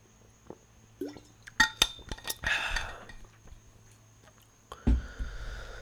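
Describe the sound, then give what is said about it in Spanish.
Clinks and handling of a glass and bottle, a short splashy burst, then a soft knock followed by a steady stream of water as a person pours themselves a little water into a glass to drink, with no talking. “Y a darme un poquito de agua porque tengo mucha sed.”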